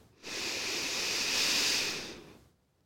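A single long, deep inhalation, airy and breathy, swelling steadily for about two seconds before tapering off, with no talking.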